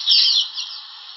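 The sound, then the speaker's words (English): Harsh, buzzy chattering of swifts squabbling at a mud-and-moss nest near a waterfall during a changeover, a continuous rasping burst that is loudest at the start and eases off toward the end. “Older birds have the benefit of experience, but even a changeover can be aggressive for the swifts”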